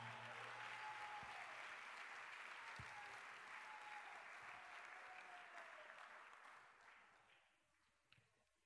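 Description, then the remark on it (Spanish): A church audience applauds the word of the Lord, a dense, steady wash of many hands clapping at once that holds strong for several seconds and then gradually tapers off and fades near the end. “¿Cuántos pueden dar un fuerte aplauso a la palabra del Señor?”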